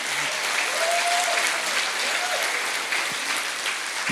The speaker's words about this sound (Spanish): No, si van a aplaudir al Señor, Aplaudanlo fuerte, please.